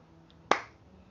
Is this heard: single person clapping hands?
yes